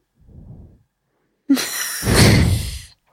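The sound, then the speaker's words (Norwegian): A soft low shuffle, then a sudden sharp knock as a door swings shut with a sweeping rush and a heavy thud, fading out after about a second and a half. “Kan du lukke døra, vennen?”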